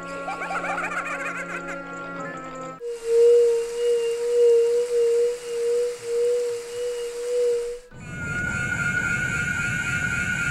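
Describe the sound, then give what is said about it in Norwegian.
A synthetic video game character sound: a bright tonal passage gives way to a sustained whistling tone that wavers in loudness for several seconds, then a dense, buzzy electronic texture takes over. “Vi hører hele en gang til. Dette er altså Skull Kid fra Majora's Mask.”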